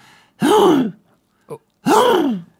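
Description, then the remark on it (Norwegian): A voice imitates a hoarse sneeze twice, each a loud, strained, rasping burst with a falling pitch, separated by a short click. “Og så har jeg begynt, jeg begynt å nyse veldig dumt”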